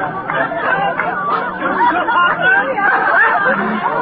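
A lively Christmas party crowd hosted by Old Fezziwig at the counting house chatters continuously, many overlapping voices blending into a steady hubbub with occasional faint laughter, no single speaker standing out.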